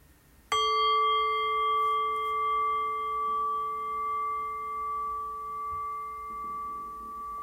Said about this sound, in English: Ringing the bell then.